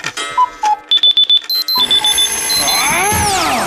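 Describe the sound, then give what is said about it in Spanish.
An alarm clock in a radio advertisement for Melodía FM's morning show Parece Mentira beeps loudly in quick repeated electronic bursts, then gives way to a bright, sustained ringing tone with sliding pitches; clear, with no voices. “Ups, di adiós a las alarmas.”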